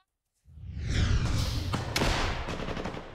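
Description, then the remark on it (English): Heavy gunfire and booming explosions in pre-dawn light during a trench battle in Avdiivka, eastern Ukraine, as a Ukrainian assault infantry unit of the 47th Mechanized Brigade tries to retake trenches captured by Russian forces; incoming explosions and outgoing fire erupt after a brief silence, rapid cracking shots over a dense, rumbling low roar, loud and sustained. “In the pre-dawn light, a cacophony of military firepower fills the air. Incoming explosions, outgoing fire.”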